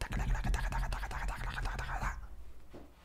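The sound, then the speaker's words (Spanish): A voice mimics laptop keyboard typing with a quick, uneven run of mouth clicks and tapping noises for about two seconds, then trails off into quiet breathy sounds. “Acabo de imitar el sonido de las teclas, para los que están perdidos.”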